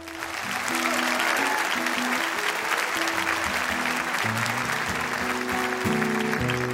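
A crowd claps and cheers steadily for several seconds welcoming a performer, in a dense, sustained wash of applause, while low, held instrumental notes shift in pitch beneath it.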